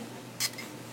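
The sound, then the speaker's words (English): A single short, hissing spray burst from a square bottle of Yves Rocher Cuir Vetiver perfume, fairly bright, lasting about a tenth of a second against a quiet background. “Let's go ahead and give it a spray.”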